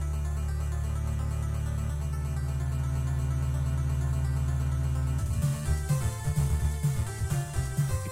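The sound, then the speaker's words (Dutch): Famicom-version chiptune music from Castlevania III (Akumajou Densetsu): buzzy square-wave tones over a steady droning bass line, then crisp noise-channel drum hits kick in partway through, driving a quick rhythmic beat. No voices. “Dit is de Famicom version.”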